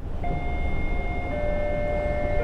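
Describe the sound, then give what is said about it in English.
A steady rumble of a train rolling along the rails out in the countryside, with a continuous high metallic whine running over the low clatter throughout. “You know, I think we're the last people on the train.”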